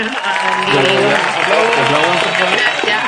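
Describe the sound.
A steady burst of group applause, given again for a guest who shared her experience, dense and fairly loud, lasting the whole three seconds, with voices talking and cheering over the clapping.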